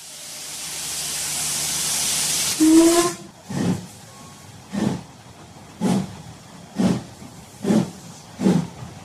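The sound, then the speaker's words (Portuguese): A steam train lets out a long, loud hiss of steam, then a brief whistle, followed by steady rhythmic chuffs as the locomotive works along. No one speaks. “Antigamente, andar de trem era um costume bem comum entre as pessoas.”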